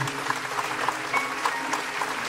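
A church audience claps together in steady, sustained applause to the Lord, many hands at once, moderately loud with no voices standing out.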